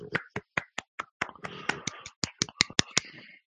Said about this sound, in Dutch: Ik, ik, ik, ik, doe een beleefd applaus.